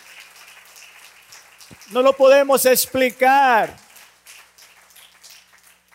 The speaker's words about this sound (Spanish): Dele al Señor una ofrenda de aplauso, porque eso es lo que hace Él.